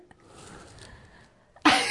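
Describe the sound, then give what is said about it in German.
After a moment of soft, breathy build-up, a single stifled sneeze bursts out abruptly near the end, fairly loud, with no talking. “Ich glaube, bestimmt gleich einen Nieser drauf.”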